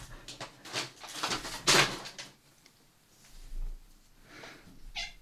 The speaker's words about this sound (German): Ja, danke, Kater. Komm, verpiss dich, du machst nur Lärm.